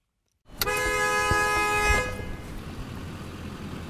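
idling car engines

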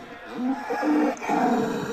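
cow mooing

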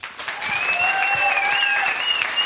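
audience applause and cheering

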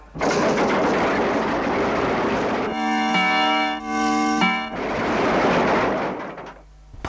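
alarm clock ringing loudly

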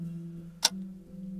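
clock ticking

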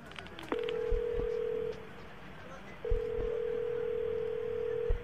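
telephone dialing and ringing

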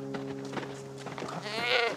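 goat bleating

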